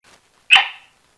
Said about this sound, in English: Abby, my cattle dog and steak loving co host. Say hi, Abby.